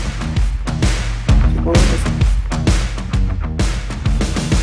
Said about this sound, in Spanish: Mira, al aire sí se oye. Ahí está, al aire sí se oye. Entonces lo voy a poner de fondo musical.